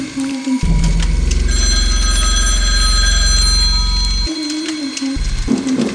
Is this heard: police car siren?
no